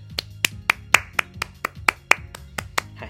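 A single person clapping steadily, about a dozen sharp, evenly spaced claps over three seconds, with no voices.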